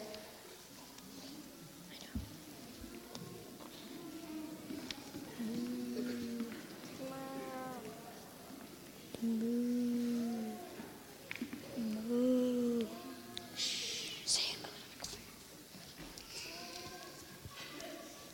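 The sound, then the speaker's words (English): A voice imitates calves mooing: several drawn-out, low 'moo' sounds, about three or four, spaced a few seconds apart, clear over a faint background hiss. “There were calves there.”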